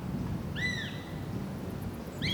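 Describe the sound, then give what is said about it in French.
A wild buzzard in the Nevada desert, United States, at nightfall in April 2001, gives a high, downward-slurring scream, then starts another call at the end, over a steady low rush of wind. Both calls are clear and sharp above the constant windy background. “Le vent souffle et une buse sauvage pousse ses derniers cris de la journée.”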